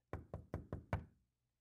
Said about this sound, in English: So I decided to knock on the door and announce my presence.